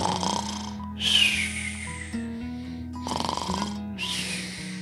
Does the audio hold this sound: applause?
no